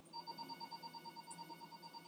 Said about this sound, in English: Can somebody get that phone, please?